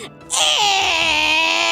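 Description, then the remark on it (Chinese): A person imitates a baby crying: a loud, sustained, high-pitched wail that bends downward in pitch and carries on steadily, starting after a brief quiet moment. “那我就好，我要学婴儿哭，我就，”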